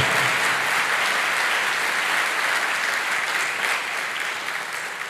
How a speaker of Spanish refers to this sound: Dele fuerte ese aplauso al que vive. Fuerte ese aplauso.